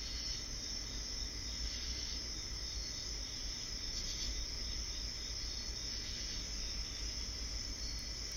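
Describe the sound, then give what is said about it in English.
A steady, dense chorus of cicadas and crickets chirping at night among trees, a continuous high buzzing trill with a low background hum, unbroken throughout, no voices. “You do not see another human, but the cicadas and crickets keep you company as they sing to you.”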